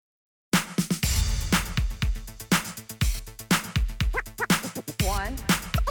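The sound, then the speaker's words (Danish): After a brief moment of silence, an 80s-style hip hop track kicks in loud, with punchy, steady drum hits, a pulsing bass line and bright synth stabs. “nummeret, vi skal høre, det hedder …, og det er …, og det kommer her”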